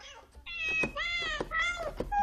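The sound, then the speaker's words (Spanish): A string of bright, synthetic-sounding cat meows plays in quick succession from a cardboard toy keyboard with stickers, whose keys make kitten sounds instead of normal notes, each meow short and tuned, with no talking. “Es una caja de cartón que yo le introduzco como una especie como de tornillo por encima y de repente, en vez de teclas normales, quien está cantando”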